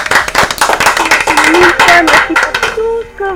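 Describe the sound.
A crowd applauds loudly, with dense, rapid clapping filling the whole stretch while voices call out and cheer over it, the clapping thinning slightly toward the end.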